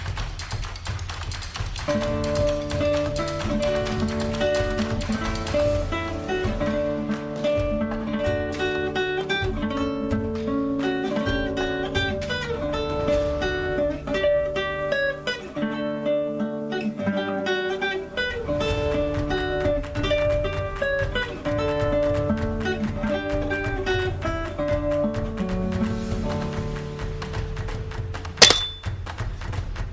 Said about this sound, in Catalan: Cançó, la lluna, la pruna. Instrument, campanes afinades. Família, percussió, metall.